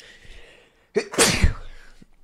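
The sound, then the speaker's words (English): A single loud sneeze: a short sharp intake followed by an explosive burst of breathy noise that fades quickly, with no talking around it. “I think we've done um, like 130 shows, and I think that's the first time I've sneezed on the show.”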